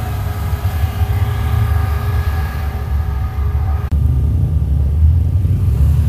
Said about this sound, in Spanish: tuve que hacer una pequeña pausa por el tráfico que gracias a la ineficiencia del alcalde pues esto es lo que tenemos.